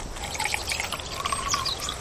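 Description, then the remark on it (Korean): Makgeolli, served with pajeon, pours steadily into a cup for about two seconds, a continuous gurgling splash with bubbly rising tones and no talking. “아니, 저기 이 파전이 있는데 막걸리 빠질 수 없잖아요. 예, 예. 우리 피디님, 저한잔 받으세요.”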